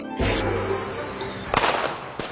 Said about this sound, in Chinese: 除夕夜，庆团圆，年夜饭，放鞭炮，鞭炮蹦蹦跳。